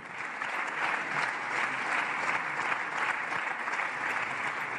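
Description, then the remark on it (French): Sustained applause from a large audience in an assembly, a dense, steady wash of many hands clapping at an even loudness throughout, with no voices standing out. “répartir des applaudissements qui nous feraient rêver, madame la présidente et moi-même, dans nos hémicycles respectifs.”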